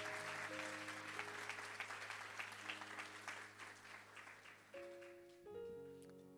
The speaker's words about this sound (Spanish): ¿Alguien dice amén a eso? ¿Alguien le da un aplauso al Señor fuerte?